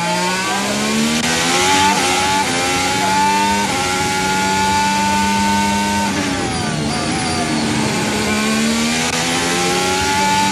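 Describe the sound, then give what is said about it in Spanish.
A Formula 1 engine screams loud from onboard Valtteri Bottas's car, its pitch climbing through gears with sharp drops at each upshift, then dipping and rising again through a corner. “Aquí estamos a bordo con Ham, perdón, este es Botas, Valtteri Botas que viene en el quinto lugar.”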